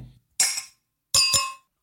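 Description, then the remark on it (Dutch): Two bright glass clinks ring out about three-quarters of a second apart in a New Year toast, each with a short shimmering decay, heard alone with no voices. “Op het nieuw jaar, jongens. Op goede eh, voornemens. De glazen er even bij.”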